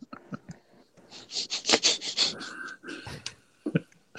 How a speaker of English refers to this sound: Sounded like uh, I'm going to open up my bag of sun chips here.